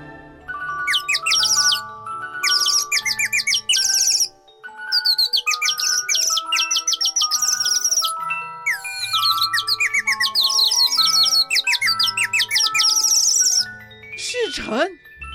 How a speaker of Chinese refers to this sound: 不过有一个前提，就是这只 AI 夜莺啊，嗯，可能技术还不够很进步啦，一开始唱出来的歌声可能不会太好听哦。